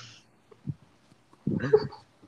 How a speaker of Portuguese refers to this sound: Hoje a gente tem um participante especial. Sim, que é o cachorro do vizinho, que não para de latir.